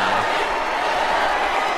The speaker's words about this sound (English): And everybody's got crazy arms now. Woo! Okay, so crazy arms for everybody. And they're all clapping for each other.